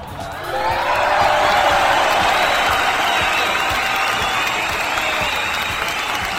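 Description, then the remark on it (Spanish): A crowd applauds loudly and steadily during a Cucu TV production for Radio Pasión OS, with dense clapping swelling in the first second and holding for several seconds, a few cheers and whoops mixed in. “Fuerte el aplauso.”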